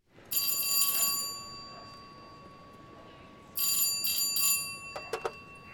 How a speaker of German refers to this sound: Pieper klingelte bei Fliege, nichts. Er klingelte bei Semkow, ebenfalls im dritten Stock, um ins Haus zu kommen.